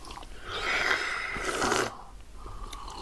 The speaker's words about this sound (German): was ihr hört, ist das zärtliche Schlürfen einer völlig neuen Kakaoentdeckung